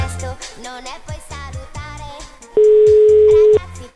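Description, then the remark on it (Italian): A single loud, steady ringback tone of about one second sounds on a phone line during an outgoing call, cutting in over background music with a beat that plays throughout. “Squilla. Sentiamo. Sentiamo se risponde.”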